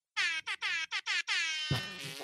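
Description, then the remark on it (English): A loud, harsh buzzer sound effect blares in five quick bursts, then holds one long sustained blast that turns rougher and noisier toward the end. No talking. “I'll make a sound effect when I want to buzz in.”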